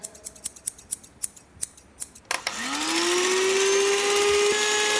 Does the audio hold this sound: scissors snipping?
yes